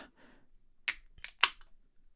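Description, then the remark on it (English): A can of Purple Haze Bang drink cracks open: a few sharp metallic clicks, each trailed by a short fizzing hiss, with no talking. “I heard the, the can pop.”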